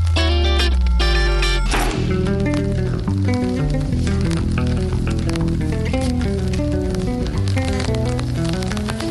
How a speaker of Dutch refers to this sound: Het regent.